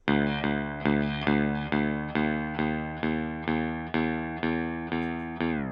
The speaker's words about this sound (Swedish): där vi har små skruvar som kallas för stämskruvar Precis. som vi snurrar på. Och Det är egentligen för att få en sträng att bli tillräckligt spänd mm. för att kunna skapa en ton. Jajamän. Eh, och när man stämmer en gitarr kan det låta lite så här.